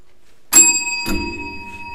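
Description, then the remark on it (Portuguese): A bell rings out clearly as a penalty signal because a newcomer did not follow the script. It is struck twice about half a second apart, its bright metallic tone lingering and slowly fading with no one speaking. “Primeira, primeira campainha que o novato não segue roteiro.”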